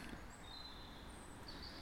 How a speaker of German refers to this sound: Jetzt könnt ihr da noch den Vogelstimmen ein bisschen zuhören und ich verabschiede mich.